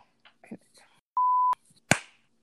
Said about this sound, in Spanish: Ay, qué aplauso tan efectivo.